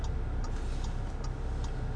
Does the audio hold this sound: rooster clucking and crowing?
no